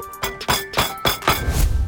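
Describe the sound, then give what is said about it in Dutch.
A hard, three-day-old stale baguette in France is rapped against something about six times in a steady rhythm. Each knock is a sharp, hollow, woody thunk, with faint sustained tones lingering underneath. “Stokbrood na drie dagen in Frankrijk klinkt dat zo.”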